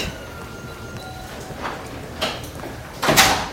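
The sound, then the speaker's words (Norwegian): A locked door at Haukeland hospital in Bergen slides and knocks shut with a couple of short scraping, rattling bursts, the loudest near the end, over a steady low background hum with no talking. “Ja, du, det er bare låste dører og, ja.”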